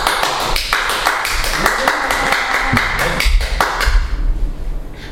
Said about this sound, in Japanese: それでは皆様拍手でお迎えください宝刀息子ことモルデカイさんです